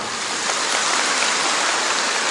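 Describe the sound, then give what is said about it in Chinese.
An audience claps together in a dense, steady burst of applause, a continuous hiss of many hands with no individual claps standing out, fairly loud and without any voices. “你们一定要听泰国人问问题，你们就鼓掌啊！”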